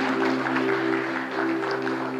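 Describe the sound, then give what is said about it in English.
A church audience claps together during a service in dense, steady applause that keeps an even level for a couple of seconds, with a sustained low tone humming underneath. “Come on, let's give him a hand clap today.”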